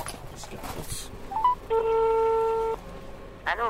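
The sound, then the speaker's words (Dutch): A mobile phone call's ringing tone sounds once as a steady, fairly loud electronic buzz lasting about a second, preceded by a short beep, with faint muffled voices and handling noise around it, as a caller stands at the front door of a house on a street. “GSM erbij. De bel.”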